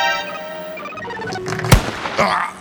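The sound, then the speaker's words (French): A sharp, loud video-game gunshot cracks out once over sustained electronic tones, followed by a softer, noisier burst a moment later. “Hé eh, Doucement avec cette gâchette.”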